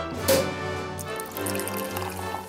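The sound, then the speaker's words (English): A brief glassy clink near the start, then a steady stream of liquid pouring and splashing into a glass while a cocktail is made, fairly loud, with no one speaking. “Making a little clink sound.”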